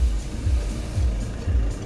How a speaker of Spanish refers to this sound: Inclusive, este coche se va para